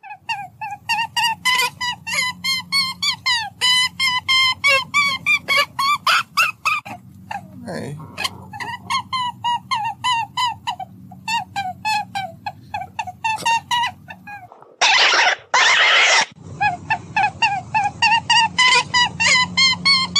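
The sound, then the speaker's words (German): Rabbit noises played from an online video: a steady stream of rapid, high-pitched squeaks and chirpy calls, fairly loud, briefly interrupted near the end by a harsh burst of rustling noise. “Hasengeräusche, Bunny Sound.”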